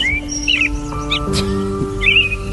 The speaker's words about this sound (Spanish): Mira, unos mirlillas.